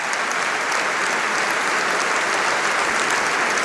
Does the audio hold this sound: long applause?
yes